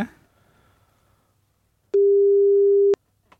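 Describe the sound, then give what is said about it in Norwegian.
A single steady telephone ringing tone of an outgoing call being placed, loud and clear, sounds for about a second after a brief quiet stretch, then cuts off into silence with a faint click. “Ja, vi, ringer.”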